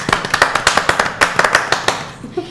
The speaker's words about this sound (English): You should definitely be very, very proud. Golf clap.